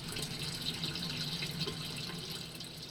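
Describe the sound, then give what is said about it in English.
Steady trickling and dripping water falling into a pool, a continuous splashing patter with no voices: water filtering through gravel beds of Bibb lettuce plants and dripping back into a tilapia fish tank. “That waste acts as a fertilizer for Bibb lettuce plants, and the water filters through the gravel to drip back to the fish.”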